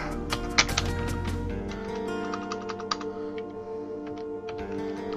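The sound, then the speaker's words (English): Rapid, uneven keystrokes clatter on a curved ergonomic computer keyboard, a steady stream of light clicks over a low background hum, with no voices. “one of these curved keyboards, and I absolutely hate it.”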